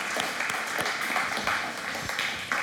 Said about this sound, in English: Can we give these guys a round of applause and say thank you for leading us?